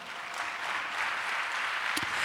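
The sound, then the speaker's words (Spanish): An audience at a church service applauds Christ, clapping together in a steady, dense wash of applause that holds at an even level for a couple of seconds, with no voices standing out above it. “Dale un aplauso a Cristo si puede, por eso.”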